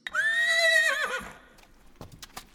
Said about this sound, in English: There, tied to a tree root in the wall, is a quivering, stomping blue horse this poor creature is twice as scared as its snowy eyed compatriot above.